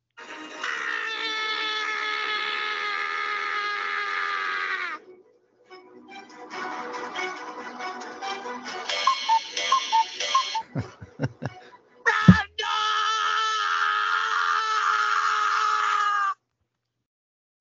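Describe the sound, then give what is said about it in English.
A Halloween-style song plays: long, wavering tonal notes with shrill, crowing and cackling-like sounds, broken by brief pauses and a few sharp clicks. No one speaks over it. “I like there. the Halloween um, song in the background there.”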